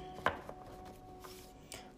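Oracle cards from a Women's Bodies, Women's Wisdom deck being shuffled: a handful of sharp, papery taps and snaps at irregular intervals, fairly quiet, with one crisper snap near the start and no voices.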